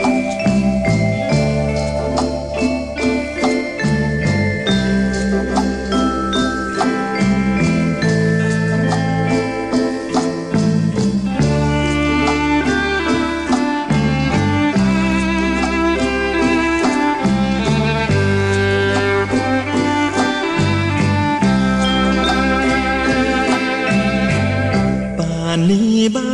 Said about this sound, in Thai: เดี๋ยวช่วงนี้เราเบรกฟังเพลงกันสักครู่นะครับ เดี๋ยวช่วงหน้ากลับมาครับ